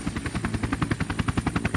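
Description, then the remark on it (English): Steady, rapid chopping of helicopter rotor blades as soldiers land, a rhythmic thumping pulse, fairly loud, with a constant high whine layered over it and no voices. “You see some soldiers land in these helicopters, get out, and you see them hauling the, the dead, infected bodies into the cargo unit of the helicopters.”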